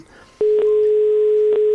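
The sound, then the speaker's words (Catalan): After a brief quiet moment, a telephone ringing tone sounds while a call is placed: a loud, steady single-pitched hum that holds continuously to the end, with a few faint clicks on the line. “Pensava que ja havia agafat el telèfon.”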